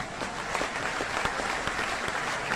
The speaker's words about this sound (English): Ladies and gentlemen, round of applause.